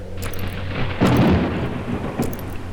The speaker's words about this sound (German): Ein übernatürlicher Regen geht auf uns herab. Ohrenbetäubend, böse, heftig.